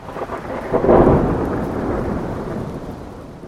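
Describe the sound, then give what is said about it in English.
Steady rain hisses continuously while a deep rumble of thunder swells early on and slowly fades, the storm sounding loud, with no voices, on a rainy, grey day in Treviso in northeast Italy. “And it's a rainy, grey day in Treviso in northeast Italy.”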